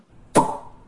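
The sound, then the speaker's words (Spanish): A single sharp pop of a champagne cork, a bright burst with a short hissing, ringing tail that fades within a fraction of a second, with no voices. “Juan regresa contento, abriendo una botella de champán.”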